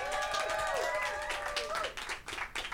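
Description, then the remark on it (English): A crowd claps steadily while many voices call out a drawn-out cheering greeting together, the voices fading after a couple of seconds as the applause carries on. “Say hello, everybody.”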